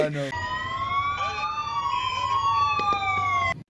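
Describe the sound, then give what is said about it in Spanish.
A police car siren wails loudly and continuously for a few seconds, its pitch gliding slowly up and down, then cuts off abruptly. “Y el güey, que este cono le dice, eh, güey, no corras, güey, viene una patrulla.”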